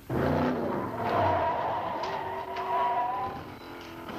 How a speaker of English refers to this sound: That girl's burning rubber.